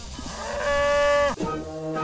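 A cow lets out one long, loud moo, rising into a sustained droning call before trailing off, with no voices present.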